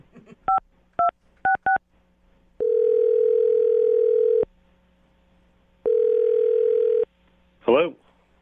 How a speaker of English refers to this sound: All right. I'm dialing his phone number right now. Here we go.